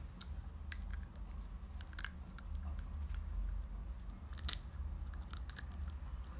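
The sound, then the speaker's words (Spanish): Sharp, crisp cracks of sunflower seed shells being bitten open, a dozen or so irregular snaps with soft chewing between them over a low steady rumble, no voices. “Sí, se escucha la pipa rompiéndose.”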